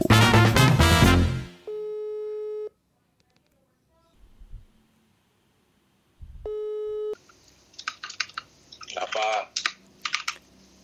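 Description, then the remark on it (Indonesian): A brief voice gives way to the ringback tone of a phone call being placed to a guest: two steady electronic tones separated by a long silence, followed by clicking, rustling handset noises. “Jadi mau tahu lebih lanjut gimana obrolan tentang apa dunia percintaan bersama dokter cinta ini, mari kita telepon aja orangnya.”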